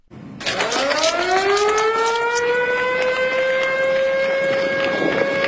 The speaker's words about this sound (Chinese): 警报声响起，战斗值班人员迅速奔向各自站位，机务人员加载任务数据，检查各项参数，完成值班飞机出动准备。